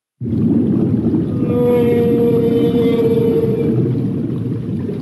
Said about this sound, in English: This is the sound of a blue whale and her calf, who's tucked up next to her body, tucked under a fin.